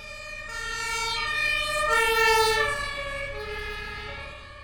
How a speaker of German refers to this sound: Das kennt man, wenn ein Krankenwagen an einem vorbeifährt, dann ist das nicht immer das gleiche Tatütata, sondern dann wird es höher, wenn, es sich, wenn sich der Krankenwagen nähert und tiefer, wenn der Krankenwagen wieder wegfährt.